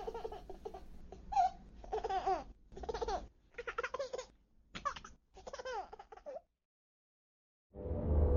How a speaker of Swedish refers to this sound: Det finns ingenting som låter härligare än barnskratt. Bebisar som skrattar. Om det inte är klockan ett på natten och man är ensam hemma.